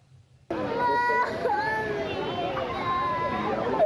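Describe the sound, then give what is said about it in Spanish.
Several children wail and sob at once, their high, wavering cries overlapping continuously and loudly after a brief quiet start, with some garbled childish voices mixed into the crying; the children have just been separated from their parents. “Este es el sonido del llanto desconsolado de niños que acaban de ser separados de sus padres la semana pasada.”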